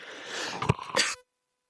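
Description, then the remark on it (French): A sudden, harsh cough bursts out into the microphone, preceded by a breathy rush of air and breaking into two quick explosive pushes before cutting to silence. “Excusez-moi, je l'ai toussé.”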